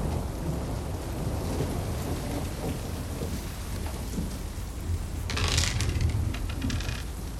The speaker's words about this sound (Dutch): Zo, daar gaat het regenen. Het zou toch droog blijven?